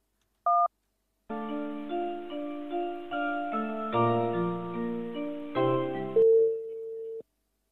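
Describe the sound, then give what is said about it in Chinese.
A brief electronic keypad beep as a phone call is placed during a radio programme, then a telephone ringing tone playing as a bright, stepping melodic tune for several seconds, ending on one sustained tone. No voices. “我们来拨打一下电话哟。”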